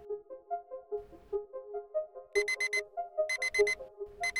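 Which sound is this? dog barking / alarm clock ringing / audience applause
alarm clock ringing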